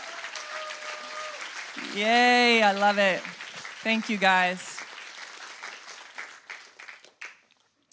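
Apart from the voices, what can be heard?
audience applause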